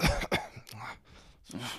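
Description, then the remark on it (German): A person imitates the woman sitting next to them repeatedly coughing: a series of short, forced coughs, a couple of sharp bursts followed by breathier, throaty hacks with brief pauses between them. “Aber ähm, die Frau neben mir hat es anscheinend sehr gestört, weil die dann einfach äh, angefangen hat, immer so zu husten.”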